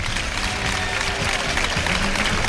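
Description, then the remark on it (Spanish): A steady, dense wash of crowd applause and clapping from a large audience at a bullring, an ovation for bullfighter José María Manzanares, loud and continuous throughout, with a faint murmur of voices mixed in. “Esta ovación es para José Mari Manzanares.”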